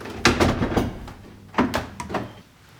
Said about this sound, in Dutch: denk ik dat hij wel een oh beetje momenteel in gebruik is. Zal ik even kloppen? Ja.